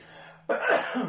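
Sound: coughing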